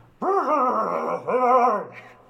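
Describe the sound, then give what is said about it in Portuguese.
A deep, growly, gravelly put-on voice rasps out two drawn-out farewell phrases loudly, imitating how Batman would speak, with a short break between them. “Vou, vou me despedir falando como o Batman diria.”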